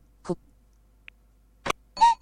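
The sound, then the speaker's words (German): A few short, clipped electronic blips with gaps between them, ending in a brief hooting, cuckoo-like tone that cuts off abruptly: a cuckoo warning tone being previewed, and cut short, while alert tones are selected in a settings menu. “Ich gehe mal meinen Kuckuck wieder ein.”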